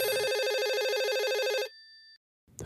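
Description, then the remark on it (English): A house telephone rings once, loud, with a fast warbling electronic trill lasting over a second before cutting off, followed by quiet and a faint rustle; it is one of several old house phones that kept ringing throughout the house, one seeming to trigger the other. “It was almost like one would trigger the other throughout the house.”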